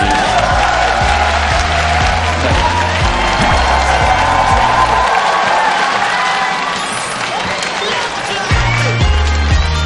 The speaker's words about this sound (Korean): 빨리 들어가세요. 빨리 들어가세요. 뭐 해요? 저렇게 사람이 힘들게 자리 찾아가면 박수를 쳐야지.